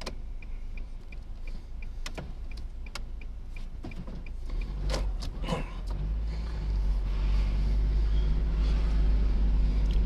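Idling car engines rumble steadily in a slow traffic jam, with periodic clicking ticks like turn signals and occasional brief mechanical whirs; the low engine drone grows louder and denser toward the end.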